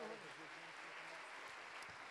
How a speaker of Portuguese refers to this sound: Vamos dar um aplauso forte para o Espírito Santo. Aleluia.